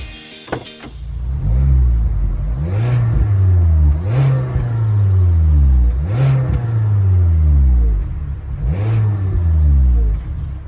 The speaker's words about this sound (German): Und für diese Folge haben wir ein Auto ausgewählt, das ich jetzt zumindest immer häufiger im Straßenverkehr sehe. Auf jeden Fall, zumindest in Hamburg. Und äh, wir horchen gleich mal rein, wie dieses Kraftfahrzeug klingt.